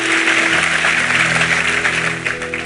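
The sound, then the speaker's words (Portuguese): A crowd applauds steadily and loudly for a few seconds, a dense wash of clapping hands with a low sustained musical tone humming underneath. “Um então, aplauso ele, vamos ficar em pé, vamos embora.”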